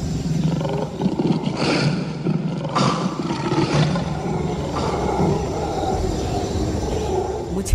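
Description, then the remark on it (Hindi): An angry lion named Bhasurak roars repeatedly in a forest, deep and rumbling, with several powerful bursts rolling one into the next, loud, no voices present. “खरगोश की बात सुनकर शेर भासुरक को बहुत ही गुस्सा आया और वह बार बार गरजने लगा उसकी भयानक गरज से सारा जंगल कांपने लगा”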